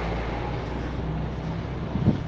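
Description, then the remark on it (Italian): A giant truck arrives to make a delivery to an Aldi supermarket, with a steady, heavy engine rumble, low and continuous throughout, and a brief louder bump near the end; no voices. “ecco è arrivato un camion gigante che sta consegnando al mio tanto amato Aldi”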